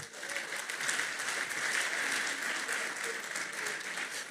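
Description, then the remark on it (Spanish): An audience breaks into steady applause, a dense, continuous wash of clapping that holds at an even level for several seconds without any clear pauses or voices rising above it. “Gracias, denle un aplauso a ellos.”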